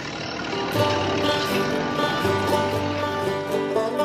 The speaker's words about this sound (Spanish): Cantemos, bailemos la canción del tractor otra vez, pero esta vez con reales tractores.